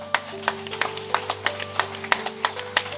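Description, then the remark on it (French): Sparse audience applause: a handful of irregular, sharp claps scattered over a few seconds, moderately loud, with a steady low hum underneath and no voices. “Oui, on peut applaudir. Merci pour ceux qui applaudissent.”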